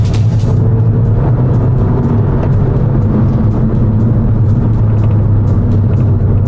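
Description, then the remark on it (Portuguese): A car engine accelerates with a loud, steady low rumble and a rising growl, heard from inside the moving vehicle, with no one speaking. “Vamos acelerar um pouquinho.”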